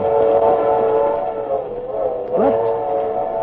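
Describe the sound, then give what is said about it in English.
A steam train rumbles past while its whistle sounds a long, steady chord, moderately loud with a slightly muffled tone and a brief wavering near the end. “When that train goes steaming through South Carolina, will them Greenville leeches it any mind?”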